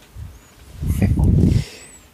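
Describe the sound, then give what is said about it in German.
A loud breath gusts directly into the microphone, a broad rushing burst lasting under a second after a softer puff, with no talking. “Hör auf zu atmen.”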